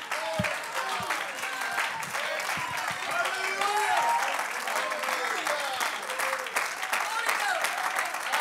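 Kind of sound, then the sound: crowd, audience clapping hands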